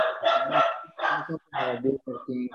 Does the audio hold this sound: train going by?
no